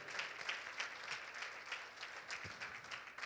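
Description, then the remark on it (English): A church audience applauds its Sunday school teachers, a dense, steady patter of many hands clapping at once with no voices standing out, holding a fairly even level throughout. “Could we give them a great big hand clap today?”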